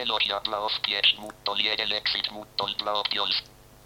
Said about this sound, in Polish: I mamy w, y, głos Nokia TTS, który brzmi tak.